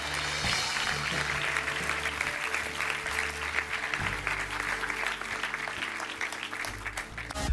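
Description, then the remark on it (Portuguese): An audience breaks into sustained, steady applause that fills the whole stretch, dense and loud, with a low musical drone or organ-like tones sounding underneath. “Será que podemos dar uma grande salva de palmas?”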